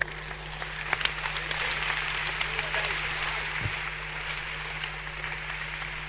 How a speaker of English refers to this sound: You see, clap for